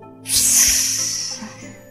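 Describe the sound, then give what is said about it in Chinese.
A sudden wet, hissing burst of spattering blood, a sound effect, bright and loud at first, then trailing off into a softer sustained spatter for over a second; no voices. “血意四溅的声音”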